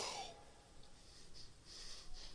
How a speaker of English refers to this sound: I'd be breathing through my nose. They didn't know that, but I'm holding. Boy, he's breathing long, isn't he? Because I'm breathing.